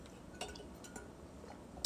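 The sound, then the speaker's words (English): Someone quietly sips a drink from a glass: a few soft, scattered glassy clinks over low background hiss, ending with a brighter clink, with no talking. “Let me get a little sip.”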